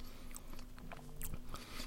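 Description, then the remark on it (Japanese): Wet chewing and smacking mouth noises picked up by a microphone during a voice recording, a series of soft clicks and squelches in irregular rhythm over a faint steady hum, with no speech. “なんか思いのほかね、このね、あのー、あれだね、なんかくちゃくちゃ言ってる音が入っちゃうな、ちょっと微妙だなって。”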